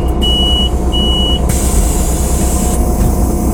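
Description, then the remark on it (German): A loud, continuous bus engine drone heard from inside the cabin, heavy low rumble with mechanical hum, plus two short electronic beeps near the start and a brief hiss midway. “Wieso klingt es ein Bus eigentlich wie so ein Presswerk. So eine Maschinenhalle.”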